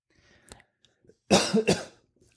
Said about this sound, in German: Okay. Räusper dich nochmal.